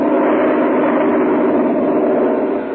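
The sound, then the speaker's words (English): A loud, steady drone of airplane engines as planes fly through a thick winter fog over an airfield, a dense, unchanging roar that fills the whole stretch with no voices over it. “But still, the planes are battling their way through.”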